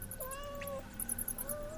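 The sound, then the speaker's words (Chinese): A black cat named Pipi, held in someone's arms, meows softly, two drawn-out, wavering mews, the second rising slightly, against a low background hiss with no talking. “你下意识地抱紧了怀里的黑猫皮皮”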